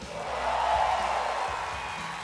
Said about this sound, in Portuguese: Tem rock and roll de novo no top 20 da Billboard. Aplausos, por favor.